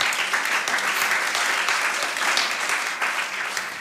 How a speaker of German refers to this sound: Nicht schlecht. Applaus